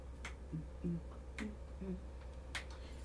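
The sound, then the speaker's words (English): A few sharp hand claps, about three, land at uneven intervals over a steady low hum, with faint low murmuring tones drifting between them. “I just want to get in here, just clap.”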